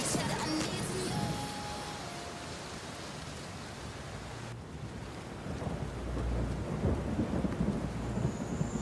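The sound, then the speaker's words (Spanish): Heavy rain pours steadily in a dense, continuous hiss, with low rumbles of thunder rolling underneath, swelling louder toward the end. “¡Cómo llueve!”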